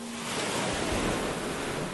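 Steady ocean surf washes and rolls continuously, a broad hiss of breaking waves with a low rumble underneath, even in loudness, with some wind mixed in and no voices.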